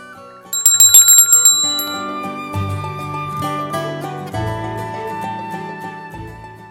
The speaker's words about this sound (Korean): 그 크리스마스 곡 하면 이렇게 벨소리도 꼭 나잖아요. 그게 한층 네, 그 12월의 크리스마스를 좀 반겨주는 것 같은 생각이 듭니다.